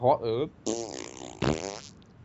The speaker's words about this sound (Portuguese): Agora a gente pode pôr eu, eu peidando ou eu mandando a cachorra calar a boca.